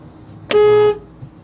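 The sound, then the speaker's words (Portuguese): A single short, loud car horn honk lasting under half a second, steady and harmonic, over faint road noise. It is given to make another driver move on, while driving along Avenida Coronel Teixeira past DB Ponta Negra. “Pronto, deu uma buzinada para ele seguir, né?”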